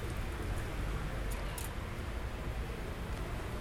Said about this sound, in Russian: А на улице тем временем полилось, прямо серьезно полилось. Слышно даже из окна, как вот сейчас эти гудки машин стали чуть потише, пореже и слышно, как струи дождя хлещут.